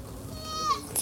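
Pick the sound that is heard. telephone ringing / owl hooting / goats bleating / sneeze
goats bleating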